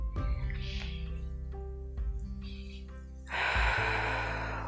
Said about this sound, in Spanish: observamos las montañas, tomamos respiración profunda, seguimos caminando, sentimos mucha tranquilidad, con mucha seguridad.